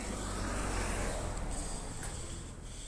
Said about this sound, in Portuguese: Como estamos a gravar o ar livre, vai passar agora aqui um carro, vamos é lá.